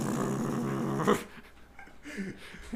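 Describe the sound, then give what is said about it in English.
A puppy growls for about a second, a rough, low rumbling snarl that then trails off into quieter shuffling and faint noise. “but guys, it's just a puppy.”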